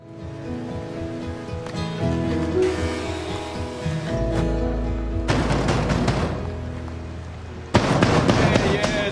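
Loud, rapid pounding on a door in a TV drama scene, as a man bangs on his birth father's door in the projects, bursts of heavy knocks arriving in clusters over a low musical backdrop, growing more insistent toward the end.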